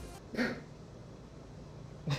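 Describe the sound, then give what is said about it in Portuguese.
A single short, muffled sneeze bursts out at a low level, followed by quiet room tone and a brief faint breathy sound near the end. “Esse foi um espirro ou foi uma risada? Foi um espirro.”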